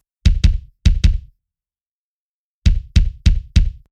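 A punchy hip hop kick drum added by a producer to a song, playing alone: two quick double hits, a pause, then four steady thumps. The beats are deep, loud and booming, with short tails.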